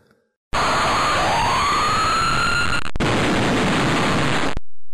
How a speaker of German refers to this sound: Wir hören mal schnell rein, wie es klingt, wenn in einem Spiel eine Katastrophe passiert.